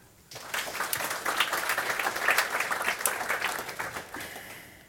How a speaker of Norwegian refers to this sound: En varm applaus til alle tre.